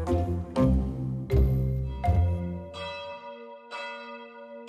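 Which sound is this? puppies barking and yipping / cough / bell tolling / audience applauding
bell tolling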